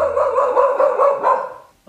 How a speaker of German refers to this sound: Dein Hund hat aber auch ein Volumen. Wenn er ein Mann wäre, dann wäre er ein Tenor.